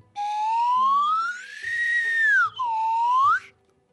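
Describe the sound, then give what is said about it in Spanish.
A slide whistle glides slowly upward in a long, loud rising tone, dips sharply, then swoops up again before cutting off, heard alone with faint low background noise. “Eh, bueno, voy a hacer un toque de flauta de émbolo.”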